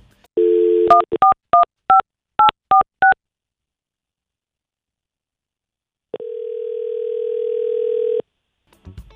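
A phone's dial tone hums briefly as a radio morning show on Mix 1051 calls a listener, then about eight quick keypad beeps are punched in at a steady pace. After a few seconds of silence, a long, steady tone sounds. No one speaks.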